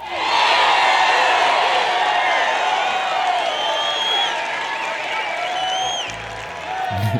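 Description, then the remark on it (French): A loud, dense crowd cheering and whooping with scattered clapping, sustained for several seconds with excited shouts rising over the roar, like a triumphant sound effect. “non, mais moi, je trouve que, avec toutes ces réponses que tu m'as données, ça mérite un jingle de victoire.”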